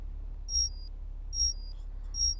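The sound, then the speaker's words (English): An alarm clock beeps three times at 5:35 in the morning in a steady, evenly spaced rhythm, each beep a bright, high electronic tone sounding alone over a low background hum. “This is your internal conduction alarm. It is 5:35. Alarm off, please.”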